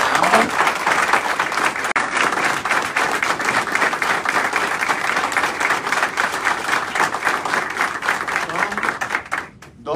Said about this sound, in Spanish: Así que yo pido un aplauso fuerte para